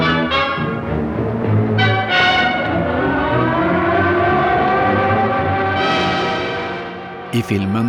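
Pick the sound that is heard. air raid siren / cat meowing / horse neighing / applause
air raid siren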